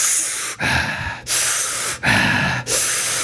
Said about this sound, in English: okay, here we go. Do the Wim Hof breathing first.